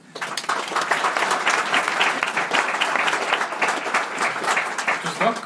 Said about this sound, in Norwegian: En applaus.